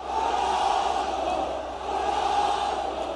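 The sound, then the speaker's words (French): A huge stadium crowd of Al Nassr supporters in Saudi Arabia chants Cristiano Ronaldo's name in unison under a shower of confetti at his presentation, a loud, dense roar of many voices that holds steady throughout with only a brief dip midway. “Ronaldo hurlé, scandé par les supporters du club El Nasser dans leur stade sous une pluie de confetti, devant le joueur maillot bleu et jaune sur les épaules.”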